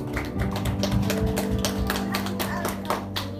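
An audience at a church worship service applauds to give glory to the Lord, many hands clapping in a steady, dense patter for several seconds over a sustained low musical drone, with no talking.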